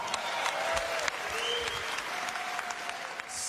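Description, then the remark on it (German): Steady audience applause fills the whole stretch, a dense patter of many hands clapping at an even, moderate level, with a few faint tonal whistles drifting through. “Auch dafür gab es dann nochmal Applaus.”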